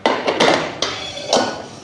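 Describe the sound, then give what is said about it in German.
Two metal frying pans clank down onto a stove in a few sharp knocks, with broad ringing clatter between the hits, loud and without any talking; one pan is for aglio olio and the other for frying zucchini slices. “Dann zwei Pfannen, einmal für unsere Aliolio und zum zweiten die Pfanne zum Raus Frittieren unserer”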